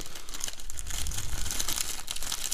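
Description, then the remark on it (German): Continuous crinkly paper rustling as someone searches a bag of crumbs for a slip of paper (a note), with sharp, crackling bursts spread across the high end, moderately loud and steady, with no voices over it. “Ich will kurz den Zettel finden paar sind jetzt richtig getriggert.”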